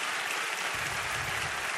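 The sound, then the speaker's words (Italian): A large crowd applauding the members of the orchestra, a dense, steady wash of many hands clapping with no gaps, sustained at an even loudness throughout. “hanno votato tutti i professori dell'orchestra, che ringrazio ancora una volta quale va questo meraviglioso, gigantesco applauso, perché se lo meritano tutto.”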